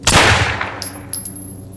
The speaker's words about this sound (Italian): e tiro il grilletto.